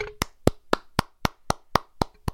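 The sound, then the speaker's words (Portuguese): Nine sharp hand claps in a steady, even rhythm, each crisp and bright with a quick decay, with no voices over them; one person clapping in tribute to the Grêmio supporters. “Eu bato palmas aqui.”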